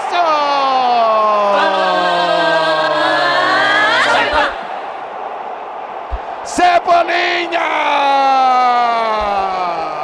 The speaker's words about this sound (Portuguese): Nestor bateu de perna esquerda no canto esquerdo do goleiro Santos. E diminuiu o São Paulo no Morumbi. Faltando 11 para acabar. Explode a torcida tricolor.